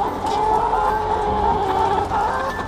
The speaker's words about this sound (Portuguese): Neste pavilhão 4, as galinhas ainda são novas, têm cerca de 18 semanas, mas já estão bem gordas e já começaram a pôr ovos, mais ou menos um por dia, ou um a cada 26 horas.